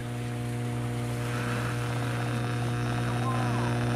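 A steady electrical hum with strong low tonal bands drones continuously, overlaid by faint warbling, whistling tones of a radio signal picked up by the metal of boats, with no voices present.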